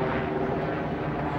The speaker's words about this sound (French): septembre, euh, vers 6 h du matin, c'est le bruit d'un hélicoptère qui m'a réveillé.